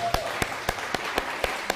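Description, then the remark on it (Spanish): An audience claps in steady unison, about seven sharp, evenly spaced claps in under two seconds, over a faint murmur of voices, giving applause to the Mashiach. “Dale un fuerte aplauso al Mashiach.”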